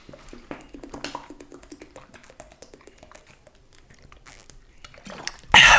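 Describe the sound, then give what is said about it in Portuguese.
Someone drinks water from a plastic water bottle: a quick run of crinkling, crackling taps as the bottle flexes, ending in a sudden loud, hissy rush. No one speaks. “Aí você que aproveite e bebe uma água também para se hidratar. E se você ouviu o barulhinho”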